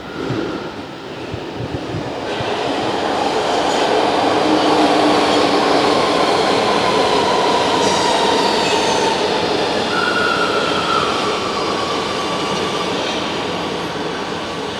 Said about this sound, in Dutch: hey, hey, ik onderbreek je even. Hebben wij een metro? Yes, kijk eens aan. 52. Zie je wel hoe mooi dat is?